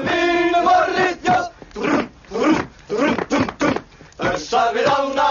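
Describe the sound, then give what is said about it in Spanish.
Loud, rowdy group singing and shouting in uneven bursts, with drawn-out bellowed notes at the start and end and choppy yelling between, a boisterous racket heard at 4:28 in the morning at the Great Northern Hotel. “Acaban de despertarme con un estrépito de mil diablos con una canción que seguramente podrá escuchar.”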